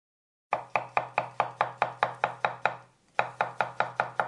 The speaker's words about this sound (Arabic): صوت تقطيع الخضروات على لوح خشبي؟ نعم، وهذا الصوت أيضا يلفظ هكذا. طن طن